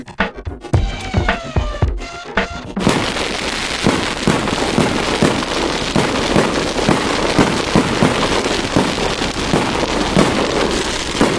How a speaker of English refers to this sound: Did you hear that? Fireworks, by the way. don't think you're supposed to let fireworks off on a rally stage. I think that was one of the rules, but hey, fireworks to celebrate a cup of tea.